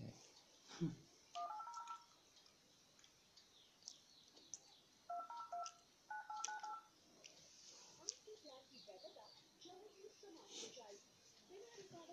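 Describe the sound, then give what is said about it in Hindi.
Short bursts of telephone keypad tones beep in quick clusters, a few near the start and more a few seconds later, as someone calls Flipkart help and feedback at midnight, over a noisy background with faint chirps and a brief voice. “आधी रात को कॉल करे हम आज”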